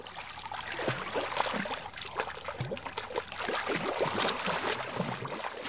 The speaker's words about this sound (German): Im türkisfarbenen Wasser eines kleinen Sees schwimmen mehrere Männer und Frauen. Sie bewegen sich vorsichtig. Bloß kein Wasser in die Augen, das brennt.